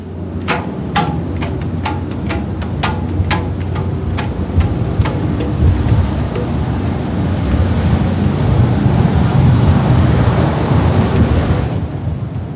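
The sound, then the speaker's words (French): Loud, steady wind gusts and rushing waves roar across the open-air deck of a boat out at sea, with a quick run of sharp, regular knocking clicks during the first few seconds. No one speaks. “des chaises longues sur la terrasse à ciel ouvert, soufflées par les bourrasques une fois le bateau lancé au large”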